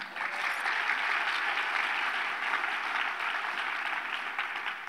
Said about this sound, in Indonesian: Mana tepuk tangannya?